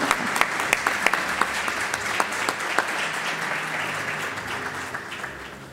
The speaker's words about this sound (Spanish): Bueno, venga, vamos a recibirlos con un aplauso.